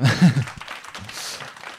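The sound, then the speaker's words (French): An audience claps in a steady, crackling wash of applause that holds fairly even throughout, with a brief voice and laughter at the start. “on peut l'applaudir”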